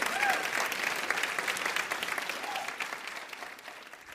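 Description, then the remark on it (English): A church audience applauds in a morning service for warriors and heroes who serve the country, with steady, dense clapping that holds strong throughout, with a few faint voices calling out early on, before easing slightly at the end. “Come on, give them a hand clap this morning.”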